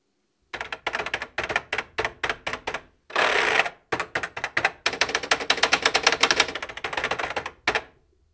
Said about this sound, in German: Und ich möchte euch jetzt die, den direkten Soundvergleich des Tastaturklapperns vorspielen. Ihr hört also erst den C64 Maxi und dann den alten C64C.